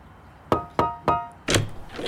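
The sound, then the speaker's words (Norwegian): Three quick, evenly spaced, fairly loud knocks on the door of the last house on the street, with a slight wooden ring, followed by a softer, duller scuffing sound. “Går og banker på døra.”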